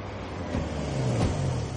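A car engine revs up in first gear and pulls away, its low droning pitch rising steadily as it accelerates, with no voices present.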